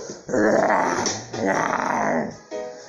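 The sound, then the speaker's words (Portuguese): A voice imitates a tiger's growl in two long, rumbling bursts followed by a shorter third one, loud with no other sounds around it. “O tigre também chegou naquele dia e falou:”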